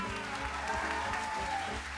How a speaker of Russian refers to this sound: Дорогие друзья, я бы хотел, чтобы еще ваши аплодисменты прозвучали в честь моих коллег, которые делают этот прекрасный звук, но вы их не видите всех.